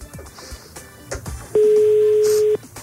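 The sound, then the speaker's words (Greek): A steady electronic ringback tone on an unanswered phone call to a child at school, one sustained buzzing beep lasting about a second, loud, following a few soft clicks and faint background noise. “Παρ' όλα αυτά χτυπάει.”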